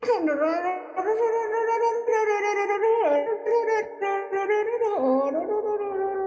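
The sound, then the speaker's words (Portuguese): Someone imitates a blender with their voice: a loud, continuous whirring drone lasting about six seconds, its pitch dropping and jumping a few times like a motor changing speed. “que barulho faz um liquidificador”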